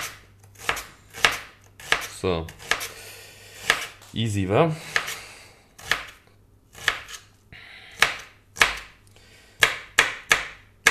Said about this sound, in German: So, und schon haben wir eine halbe Zwiebel klein gemacht.